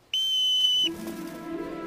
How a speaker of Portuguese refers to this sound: Quando eu apitar. Três, dois.